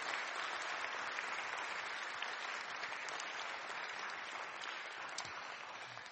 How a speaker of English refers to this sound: So I'd like us to appreciate these people before they even start. Shall we just give a round of applause to everybody who has